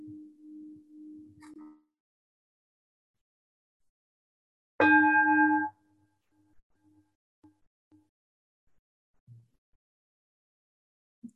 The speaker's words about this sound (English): Do you want to ring a bell? Will you ring a bell, please?